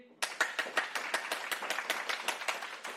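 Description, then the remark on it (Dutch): A group of children at a church service clap together as loudly as they can on a count of three, a dense burst of many overlapping claps with a roughly steady rhythm, starting abruptly after a brief silence, with no voices. “Ik wil samen met jullie zo luid mogelijk klappen.”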